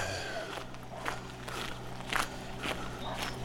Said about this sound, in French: au bout, il y a des ouvriers qui refont euh, la route. D'ailleurs, euh, vous entendez, je suis sur des petits gravillons tout neufs.